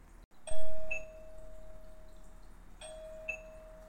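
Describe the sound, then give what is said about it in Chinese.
A doorbell rings ding-dong twice, each press giving a bright higher chime followed by a lower sustained tone that rings on, with no one speaking. “叮咚叮咚，有人又敲响了门铃。”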